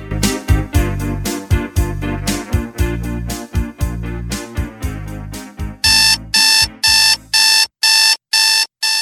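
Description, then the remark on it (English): An alarm clock goes off loudly, first with a rhythmic, pulsing tune, then switching to a steady series of sharp electronic beeps repeating about once a second. “Do you know what that sound is? That's your wake up call.”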